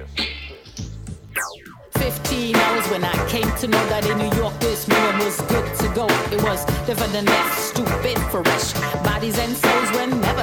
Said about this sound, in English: Rap music. It's all beat and all talk. It tells you a story and makes you want to dance. Dance. But right now is a music that is all beat, strong beat, and talk. It's rap music, and it sounds like this.